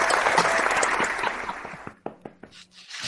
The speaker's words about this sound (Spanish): Un aplauso, un aplauso.